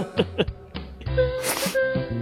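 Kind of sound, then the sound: human body sound, repeated coughing fit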